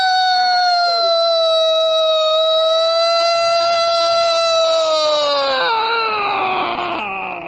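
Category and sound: signal or alarm, siren sound effect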